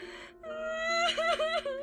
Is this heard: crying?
yes